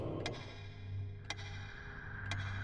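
A clock ticks slowly and steadily, three crisp clicks about a second apart, heard alone over a low, constant background hum.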